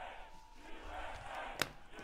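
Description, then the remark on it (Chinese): A large crowd at a rally roars and chants "USA" in unison, a dense, sustained wall of many voices with rising and falling shouts, plus a brief sharp burst near the end. “民众大喊 USA。”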